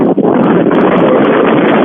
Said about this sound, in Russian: Только мы вас не э, слышим. Жуткий ветер или что там у вас. Не могу жуть. Кошмар, какофония. Невозможно.